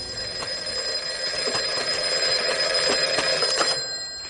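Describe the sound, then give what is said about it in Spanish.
A black telephone rings in a torture room, ringing continuously for about four seconds, a bright metallic ringing with rapid repeated strikes, like an old telephone's bell. It sounds alone, with no voices. “luego coge el teléfono negro. Este suena en la sala de tortura.”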